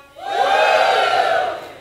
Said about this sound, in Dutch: Met andere woorden, het is oké om te juichen in de kerk in een vorm van aanbidding voor God. Shalom, kunnen we juichen?